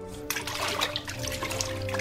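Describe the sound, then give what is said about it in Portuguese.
Water splashes and sloshes steadily for a couple of seconds during a baptism, starting abruptly and staying fairly loud, over a soft sustained tonal hum in the background. “Eu batizo vocês com água, mas aquele que está vindo batizará vocês com o Espírito de Deus.”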